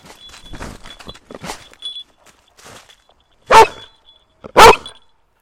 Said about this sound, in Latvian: Ar skaļo riešanu suns signalizē, ka man ir atradis.